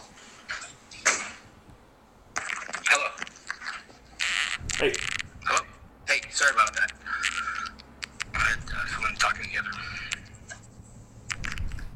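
A door being closed, with a flurry of rattling, scraping handling noises and several sharp clicks and knocks spread over a dozen seconds, moderately loud.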